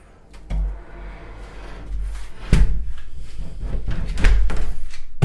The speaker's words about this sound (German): ich latsch hier jetzt einfach mal durch in Richtung Tonstudio. Da sind wir drin und wir machen jetzt die Türen zu.